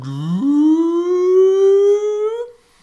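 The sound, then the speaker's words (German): A single voice in the opposite stand (Gegengerade) of a stadium imitates an air-raid siren: a wailing tone that swoops upward, then keeps climbing slowly in pitch as it holds loud and steady for about two seconds before cutting off. “ich hatte mir hier aufgeschrieben, äh, dass wir, das war auf der Gegengrade war quasi zwischen Fliegeralarm und Kuhglockenwahnsinn.”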